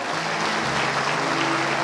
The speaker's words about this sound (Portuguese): Se você crê, dê uma salva de palmas a Jesus, aleluia.